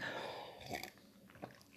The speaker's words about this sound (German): Ich liebe es übrigens, meinen Tee zu schlürfen. Das ist so eine Angewohnheit, die ich mag.